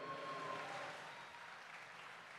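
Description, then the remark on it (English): A burst of audience applause, dense overlapping clapping that stays steady and fairly loud for a couple of seconds before easing slightly, with no talking over it. “Yeah, clap it up for that.”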